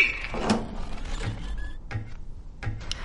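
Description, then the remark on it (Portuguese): A heavy truck door being opened: a rattling, scraping slide broken by several dull metallic clunks and a brief high squeak, with no voices. “Robô, abre esse caminhão pra gente olhar o nosso prêmio.”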